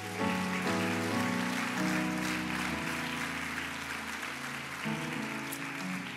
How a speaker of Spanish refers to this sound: Tiene libertad para darle un aplauso a Jesús si quiere.